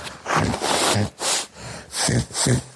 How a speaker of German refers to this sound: Muss ich mal schneuzen, es tut mir ja, leid, weil sonst kurz. muss ich niesen.